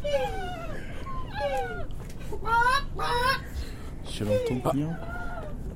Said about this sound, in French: J'ai un doute. Quel doute Je sais pas, j'ai l'impression d'entendre euh, peut-être une, une poule. Pourquoi, pourquoi j'entends ça